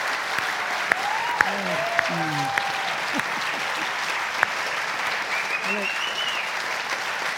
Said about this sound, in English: they're clapping the prophets, not us.